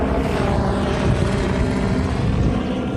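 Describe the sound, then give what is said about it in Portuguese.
A loud, steady roar of two police helicopters with rapid rotor thumping, flying low overhead around the Supreme Court building in Brasília, Brazil, to watch the area, under a clear blue sky, with no one talking. “É o tempo todo passando helicóptero nos voos rasantes para observar o que está acontecendo ali em torno do prédio.”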